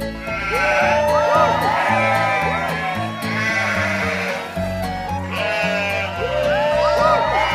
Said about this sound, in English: Sheep shout.